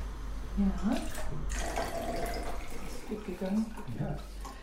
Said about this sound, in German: Stelle ich mal ein Glas daneben und dann kannst du ja mal von diesen 100 Prozent 50 Prozent ins andere Glas schütten.